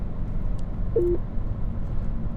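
A single short electronic chime, a quick two-step tone lasting a fraction of a second, from a car's Uconnect hands-free system signalling an incoming call, sounds over the steady low rumble of a moving car's interior.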